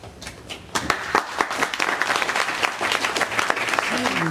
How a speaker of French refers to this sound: Nous applaudissons ici très chaleureusement à Sèvres.